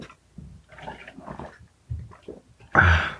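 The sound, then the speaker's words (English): Soft drinking sounds with small sips and swallows as a person gets a drink of water, then a sudden loud rush of pouring water near the end. “Sorry, I'm getting water.”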